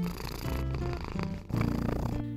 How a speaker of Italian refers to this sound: ci sono solo diverse teorie per spiegare come vengano generate le fusa dei gatti, perché in realtà non sappiamo ancora come riescono a produrle.